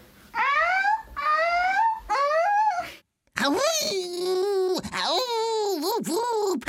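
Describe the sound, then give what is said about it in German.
A harbor seal pup calls loudly: three short, rising, baby-like wails, then after a brief gap a longer stretch of wavering, crying moans. “Das hört sich so an, wenn Seehundbaby ruft.”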